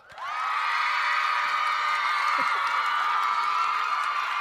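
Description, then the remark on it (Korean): A standing ovation: a crowd bursts into sustained applause and cheering that swells within the first half-second and holds steady and loud, a dense wash of clapping and voices with no speech on top. “기립박수 감사드리고요.”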